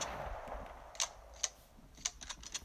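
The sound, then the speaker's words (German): The epic variant of a video game pump shotgun reloading: a quick run of sharp mechanical clicks and clacks, about five irregularly spaced metallic hits, fairly quiet, with no voices. “Äh, wie es beim Nachladen klingt, bei der epischen Variante zum Beispiel so.”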